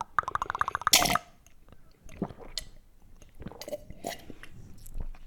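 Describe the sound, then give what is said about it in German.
Loud gulping of cola, drunk deliberately loudly in ASMR style: a quick rhythmic series of swallows followed by wet mouth sounds and scattered smacks, with no talking. “Ich trinke extra laut, so ASMR-mäßig.”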